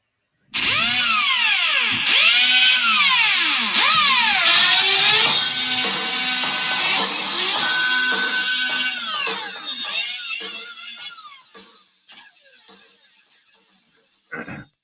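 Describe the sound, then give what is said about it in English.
A voice imitates a blender motor with a loud, harsh whirring drone whose pitch repeatedly swoops up and down. It grows rougher, fades toward the end, then ends with a brief burst. “I am your blender.”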